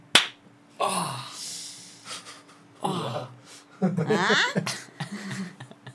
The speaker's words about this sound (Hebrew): את הרעש הזה ששמעתם, זה היה הרעש של היד שלי על הלחי. שלי. הלחי שלי.